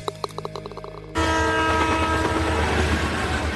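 A short burst of rhythmic clanking gives way abruptly to a loud train horn blaring steadily over the heavy rumble of a passing train.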